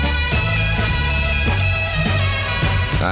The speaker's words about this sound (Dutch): We moesten even aan de ringtoontjes wennen net